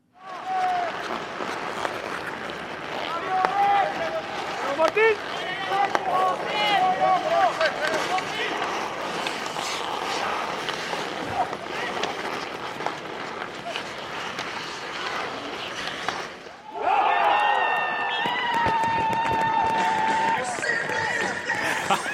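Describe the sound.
Busy crowd noise from a bandy match, with a steady murmur of many voices, scattered shouts and whistle-like tones, and skate scraping on ice, swelling louder and brighter near the end.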